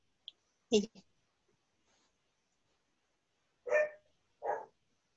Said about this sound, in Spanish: Sí, sí. Es mi perro, sí. Perdón.